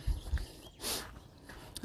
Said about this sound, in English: There's my dogs.